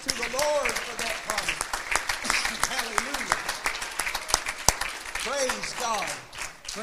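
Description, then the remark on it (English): An audience claps hands steadily in a sustained, lively burst of applause, with voices calling out and cheering over the clapping throughout. “Can we clap our hands?”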